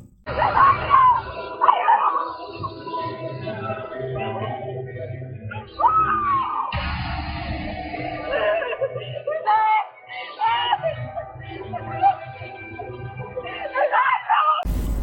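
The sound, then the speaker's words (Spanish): A young woman screams and wails for help while being raped by several men, her cries loud and sustained, rising and breaking repeatedly over about fifteen seconds with only brief pauses for breath. “Sin hacer caso a los tremendos gritos de la joven que grita pidiendo auxilio.”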